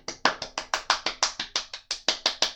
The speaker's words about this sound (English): But that does mean we get to crown a Blood Bowl NE1 host as the winner of the very first Cup of the North. Yeah. So round of applause there